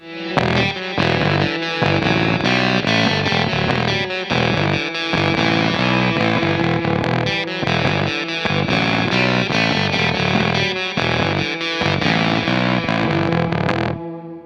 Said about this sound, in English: I was using a Danelectro DC9 with Gemini lipstick pickups in it, and that was running into the PEP box and then into a Vox AC15. After the fact, I processed the guitar through a Lexicon LXP1, which is a late 80s, early 90s digital reverb.